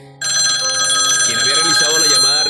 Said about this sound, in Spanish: De pronto, el sonido del teléfono interrumpió aquel silencio